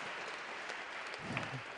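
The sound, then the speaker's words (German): An audience applauds with a steady, dense patter of many hands clapping, fairly soft in level and continuing evenly throughout, with a faint murmur rising briefly underneath toward the end. “und ihnen einen großen Applaus geben.”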